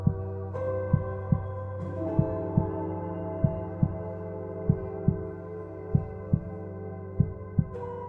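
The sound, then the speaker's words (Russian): A slow, steady heartbeat thumps in soft, muffled paired beats, repeating about every second over a sustained low drone with no voices. “Мое сердце бьется”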